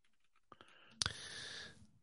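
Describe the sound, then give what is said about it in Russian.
A few sharp clicks of mechanical keyboard keys with transparent keycaps, followed by a louder clack with a short, bright, ringing decay, fairly quiet with no talking. “Любая клавиатура механическая э, по звучанию будет громче, чем ноутбучная клавиатура.”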